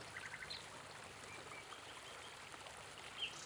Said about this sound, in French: le son de la cascade, un peu plus loin, la remplit de calme.